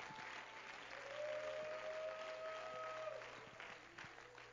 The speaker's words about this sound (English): Why don't you clap your hands to Him and give Him praise?